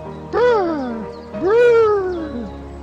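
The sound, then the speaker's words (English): A human voice imitates the call of a robin, called the Nordic robin, with two long, wavering cries that rise then slide downward. Each cry lasts about a second and is fairly loud, sounding almost like a cat's meow. “with some of the most beautiful bird calls you will ever hear? The stiff nippled Nordic robin.”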